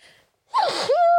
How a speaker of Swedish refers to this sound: Vänta, jag måste nysa.